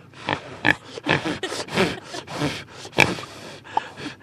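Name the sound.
pig grunting and snorting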